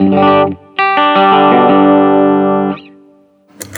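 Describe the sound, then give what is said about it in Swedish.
Clean electric guitar tone from a Telecaster: a short strummed chord, a brief pause, then a second chord left ringing and sustained for about two seconds before a quick scratchy string noise at the end. “Så här är mitt rena ljud då.”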